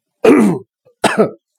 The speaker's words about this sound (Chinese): 呃，又咳嗽了啊！